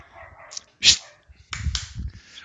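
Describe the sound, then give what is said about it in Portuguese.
The speaker's own small dogs bark a few times, with a sharp yelp followed by a cluster of higher-pitched barks and yips over faint background noise. “É, minhas cachorrinhas estão latindo aqui, não sei se dá para ouvir.”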